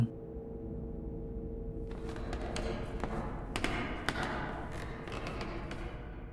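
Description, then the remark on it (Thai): Footsteps in a hallway of a house, coming toward the kitchen: a series of soft taps and thuds begin a couple of seconds in and continue at a walking pace over a steady low hum. “เสียงนั่นอีกแล้ว ไม่ผิดแน่ มันคือเสียงฝีเท้าตรงโถงทางเดินแล้วมันกำลังใกล้เข้ามาที่ห้องครัว”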